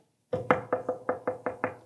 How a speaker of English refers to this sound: Heard a knock on the door and said, This is the Los Angeles Police Department. Come out.